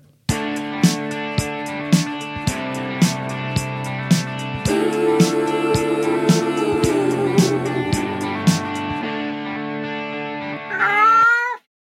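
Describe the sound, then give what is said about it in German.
A short, upbeat jingle built from sampled cat meows set to a melody over a steady rhythmic beat, loud and processed, ending with one long, bending meow. “Die denkneue Katzen-Showband aus ihrem Galactic Headquarter in Dresden.”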